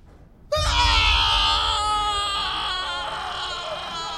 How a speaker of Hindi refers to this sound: एक जोरदार चीख ओटी के अंदर से आई